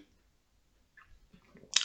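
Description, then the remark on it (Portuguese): A sip of hot coffee: a second of near silence, then faint wet mouth sounds building into a brief, sharper slurp at the end. No one speaks. “Estou a beber café hoje.”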